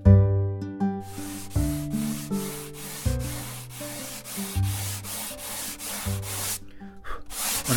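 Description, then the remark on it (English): Steady back-and-forth strokes of sandpaper rubbing across wood while making a guitar in a guitar shop, a rhythmic gritty rasp repeating several times per second, over a bed of sustained tonal music. “I'm listening to the sound of the sandpaper, which can change a little bit as I remove the wood.”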